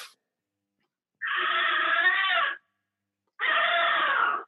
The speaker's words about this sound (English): That's my cat. That's your cat. wow she's old and she likes to express her feeling about things sometimes.